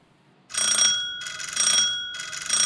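A doorbell rings in the middle of the night in three loud, repeated bursts, each a bright, sustained electric buzz-ring with steady high tones, separated by brief pauses. No one speaks.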